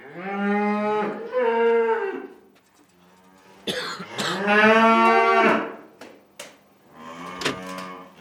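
Cows moo loudly, three long drawn-out calls with short pauses between them, each a deep, wavering bellow; no one speaks.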